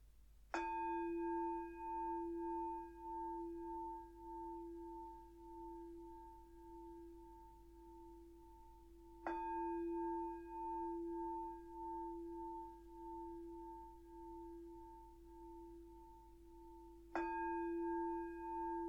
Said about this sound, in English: So I'll start with three sounds of the bell if you want to make yourself comfortable.